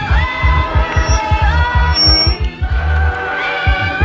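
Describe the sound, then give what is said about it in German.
A loud, sustained electronic whine of loudspeaker feedback during a live on-stage radio broadcast rings over a pounding low bass rhythm, with steady high-pitched tones holding throughout and a brief piercing squeal midway. “Ja, wir haben eine schöne Rückkopplung.”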